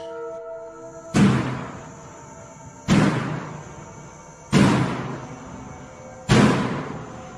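Four heavy, booming knocks strike a metal door at a slow, even pace, each bang ringing and echoing briefly before the next. They are loud, with no voices.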